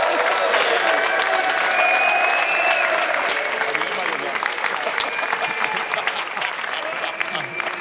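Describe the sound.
A crowd breaks into sustained applause as news comes in that Costa Rica has scored a goal against Japan: a dense wash of clapping that stays loud for several seconds, with scattered voices and cheers mixed in.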